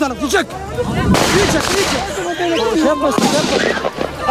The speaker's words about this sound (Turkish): Jandarma öfkeli kalabalığı dağıtmak için havaya ateş açtı.